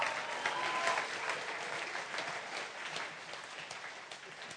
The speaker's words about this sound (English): What was that? That was like really suppressed. Some people were like charismatic, Pentecostal, love Jesus. Others were like, should I clap? Yes, clap.